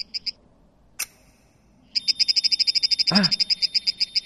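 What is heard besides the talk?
plant's sonified stress reaction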